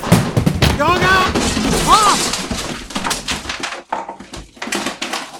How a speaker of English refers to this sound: Oh, oh. Who throws a chair?